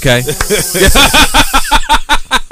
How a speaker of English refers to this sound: Okay. yeah, we got the spray right here too as well.